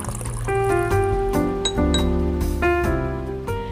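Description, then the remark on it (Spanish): Espresso streams steadily into a cup for a few seconds, a continuous pour with bright, ringing tones and a faint clink of porcelain, no voices over it. “Llegó la hora de tomarnos un expreso”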